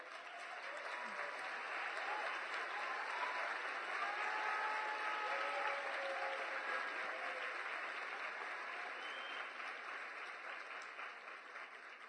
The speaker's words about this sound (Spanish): Así que les voy a pedir un super aplauso para mi novia.